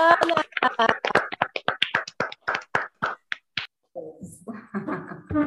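A short burst of hand clapping, about twenty sharp claps in a quick, slightly uneven rhythm, fading into a few sparse claps before a voice starts talking.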